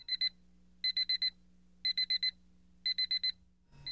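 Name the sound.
alarm clock ringing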